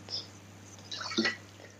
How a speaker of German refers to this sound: Jetzt ganz kleinen Stück Wasser rein.